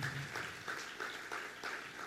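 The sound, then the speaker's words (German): An audience claps together in a steady round of applause for the technical crew, the dense patter of many hands rising and falling slightly with no voices over it. “Übrigens mal einen dicken Applaus an die Technik, dass die das so schnell hinbekommen haben.”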